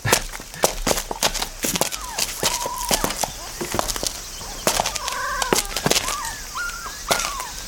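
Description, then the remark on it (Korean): Several young puppies inside a box whimper and whine in thin, high-pitched cries that rise and fall, repeating over a background of sharp clicks and rustling. “강아지 울음소리인데?”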